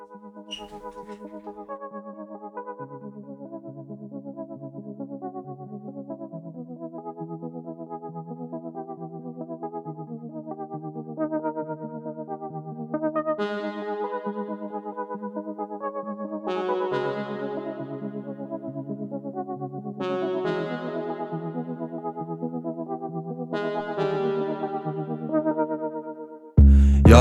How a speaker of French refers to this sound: on va écouter un morceau d'Octo justement